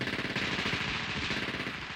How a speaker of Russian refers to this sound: Тогда я принимаю решение, чтобы наши ребята залегли против дверей, которые находились сзади, естественно, и открыли беспорядочный огонь из немецких автоматов, которые взяли у немцев.